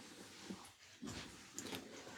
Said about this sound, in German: Den Hund mal kurz davon abhalten, an sich selbst rum zu knabbern.